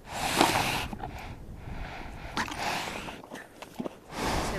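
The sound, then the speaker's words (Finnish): A dark brown horse on a riding and horse farm in Orimattila, Finland, snorts and huffs in several breathy, noisy bursts, with a louder blast at the start and another at the end, amid soft shuffling movement and no speech. “Se tuhisee.”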